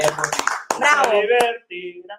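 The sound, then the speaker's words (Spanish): A handful of sharp hand claps land irregularly over about two seconds, fairly loud, mixed in with a person speaking over them. “Bravo. Bravo. Aplauso.”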